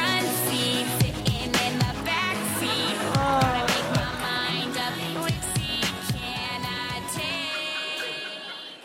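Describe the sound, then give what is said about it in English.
A pop song plays at steady, full volume, with sustained sung melody over a dense backing of rhythmic percussion hits and layered instruments throughout. “Hmm, let's listen to the song.”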